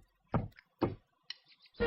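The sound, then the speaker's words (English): Three loud, dull knocks on the little front door of the three little pigs at a slow, uneven pace, with a brief faint higher-pitched sound between the second and third knock. “Knock, knock, knock. Who's that knocking at our little front door?”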